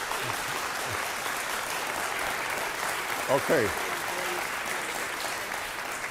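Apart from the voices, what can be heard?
audience applause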